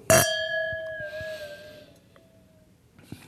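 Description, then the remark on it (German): A single bright clink of wine glasses touching in a toast before tasting a Rheingau Riesling, followed by a clear, high ringing tone that slowly fades over a couple of seconds, with no talking. “Gut, dann wollen wir doch mal ein Stück probieren. Zum Wohl.”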